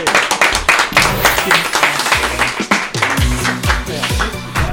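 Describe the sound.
A crowd applauds with steady, dense clapping for several seconds, loud and continuous, while voices call out and cheer underneath.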